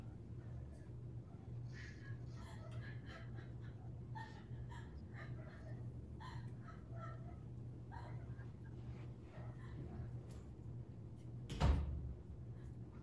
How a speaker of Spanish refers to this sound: elegante cerró la puerta. What was that?